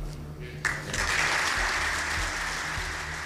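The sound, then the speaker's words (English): A burst of loud applause and cheering erupts suddenly in the Dáil, the Irish Parliament, from the Fianna Fáil backbenches during a standing ovation as he leaves office. It holds steady as a dense, broad wash of clapping with a crowd roaring beneath it, with no words spoken. “There's a tumultuous cheer in the Dáil from the Fianna Fáil uh, backbenches, and he ends his public life on something of a something of a high”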